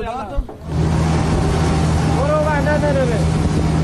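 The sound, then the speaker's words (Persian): After a brief voice at the start, a bulldozer engine roars loud, a steady, heavy rumble with a constant low drone. Faint voices drift over it midway. The bulldozer is taking ballot boxes for the 11 Esfand election to flood-hit areas of Sistan and Baluchestan, Iran. “این هم قررش بلدوزر است که نه برای امداد رسانی بلکه برای رساندن صندوق رأیگیری انتخابات 11 اسفند به مناطق سیل زده می رود.”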